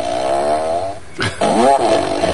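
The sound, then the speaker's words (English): A person blows loud, buzzy raspberries imitating farts: a long, steady one, then a brief gap and a second with a wobbling pitch, with no talking. “I'll do some farting.”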